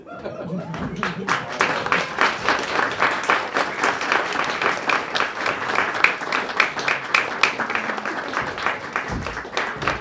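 An audience applauds steadily, many hands clapping in a dense, crackling wash that holds at a fairly loud, even level, with a few scattered chuckles mixed in.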